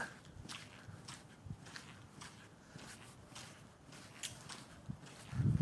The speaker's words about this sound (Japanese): ちょっと今、歩きながらまた喋れますね。こう砂の上を、土の上を歩くことがよく聞こえるかと思います。このステレオマイク、本当に感度がいいというか、結構細かい音まで拾うんですよね。